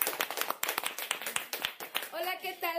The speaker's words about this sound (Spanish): Porque está aquí a mi lado mi esposa, mi amada, la bella de las quincenas. Para la cual pido un aplauso.